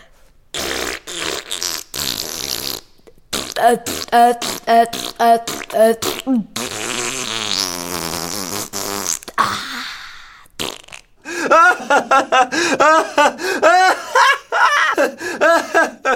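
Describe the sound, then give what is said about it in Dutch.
Someone blows loud, exaggerated fart noises with their mouth for the story character Ratje Ratmuis, with a long sputtering raspberry in the middle. Bursts of snickering and laughter break it up, and it stays lively throughout. “Toen liet Ratje Ratmuis nog eens scheet. Dat mag nog meer overdreven.”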